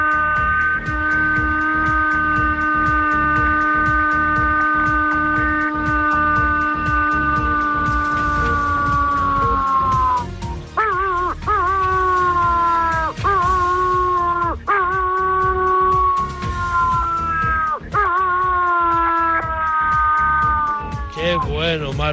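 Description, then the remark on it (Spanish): A person imitates a wolf howl, the kind of call used to call wolves, starting with one long, steady, drawn-out howl, then breaking into a series of shorter, wavering howls that rise and fall in pitch. “Ahora te voy a hacer el aullido.”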